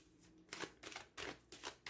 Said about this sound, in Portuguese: Vou baralhar então aqui um bocadinho e vou lançar oito cartas no total, ok?